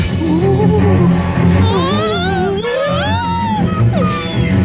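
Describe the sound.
A man's voice imitates a whale call, drawing out long, wavering moans that slide upward in pitch over a steady low rumble, loud throughout.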